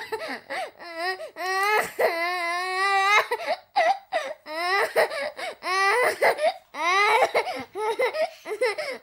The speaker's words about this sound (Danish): Godt, men øh, det lille, helt lille barn, og nu synes jeg faktisk lige, vi skal faktisk lige have et barn, der græder her.